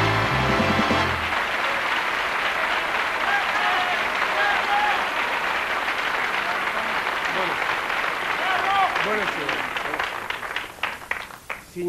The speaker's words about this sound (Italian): Signore e signori, buonasera. Grazie di questo applauso che in fondo forse vorrebbe anche premiare questa mia puntualità.